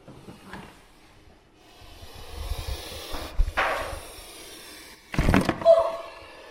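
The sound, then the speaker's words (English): A puff adder gives a couple of sharp, breathy puffs, the second louder and longer, amid low knocks and rustling as its cage is opened and a microphone on the end of a pole is held to it; the snake bites the microphone. “so that we can hear the distinctive puff of a puff adder”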